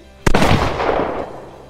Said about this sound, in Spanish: Nos escuchamos o no, porque aquí podríamos dejar un... Cliffhanger, cliffhanger. Sí, mira, un disparo como este.